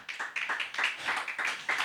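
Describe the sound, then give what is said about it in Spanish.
A crowd clapping their hands hard together in a quick, steady rhythm, the many claps blending into a dense, continuous patter. “Dale fuerte las palmas.”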